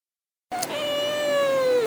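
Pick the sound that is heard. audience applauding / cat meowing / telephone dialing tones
cat meowing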